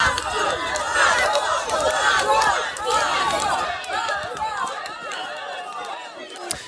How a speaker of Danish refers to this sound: Lad os lige høre øh, nogle af de øh, demonstrationer, der er lige nu i Hviderusland mod Hvideruslands præsident Alexander Lukashenko.